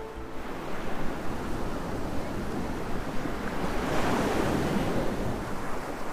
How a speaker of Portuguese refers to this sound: Estou ouvindo! É o chiado das ondas. Não, essa é a gargalhada do mar, disse ela.